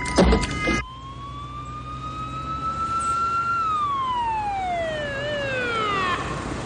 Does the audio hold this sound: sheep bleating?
no